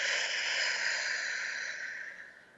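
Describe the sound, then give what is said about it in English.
A slow, airy breath, in through the nose and out through the mouth, a steady hiss of air that lasts a couple of seconds before gently fading away, with no talking. “In through the nose, out through the mouth.”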